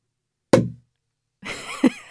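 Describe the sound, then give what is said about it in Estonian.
A single sharp cork pop from a bottle of non-alcoholic sparkling wine being opened, followed after a short pause by a rushing hiss of foaming fizz with a brief bump in the middle. “pauku teeb samamoodi, tähistada väga meeldiv.”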